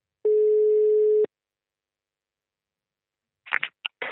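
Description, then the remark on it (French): A single steady, mid-pitched telephone ringing tone of an outgoing call to a Fox shop in a town next to Mulhouse sounds for about a second, followed by silence, then a few short clicking bursts at the end. “Et on va appeler une seconde boutique, un second magasin Fox qui est situé à Temps à Tahan, je ne sais pas trop comment on dit, qui est une ville juste à côté de Mulhouse”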